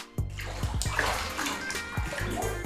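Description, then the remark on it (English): Bathwater sloshing in a tub: continuous churning and splashing with irregular low, heavy surges of water moving back and forth, steady and fairly loud throughout, with no talking. “Oh no, looks like she's in the bath.”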